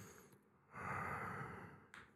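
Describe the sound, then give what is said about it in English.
A single heavy, drawn-out breath, fairly loud, rasping for about a second and followed by a quick second intake. No one speaks. “What is what is the journey, the road of life, you know, of heavy breathing?”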